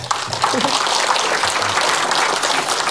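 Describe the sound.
An audience applauding, a dense, steady wash of many hands clapping that stays loud and even throughout, with a few faint voices mixed in underneath.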